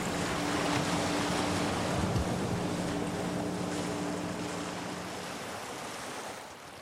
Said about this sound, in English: The weather conditions have got worse. The day is grey and wet, and the waves are coming fast and strong.